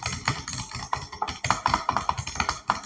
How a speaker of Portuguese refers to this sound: Digitando